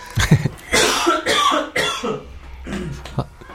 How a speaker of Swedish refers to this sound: Ursäkta, fy fan vad jag hostar.